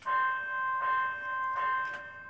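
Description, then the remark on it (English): A transit vehicle's warning gong rings out in sustained, bright metallic tones, struck about three times in a steady rhythm, fairly loud, with no voices. “we do have what we call what we call the gong, which is”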